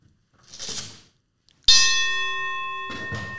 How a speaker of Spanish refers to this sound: déjenme tocar la campana, no vayan a tirar madrazos con, cuando la toque, porque van a decir contigo sí, güey.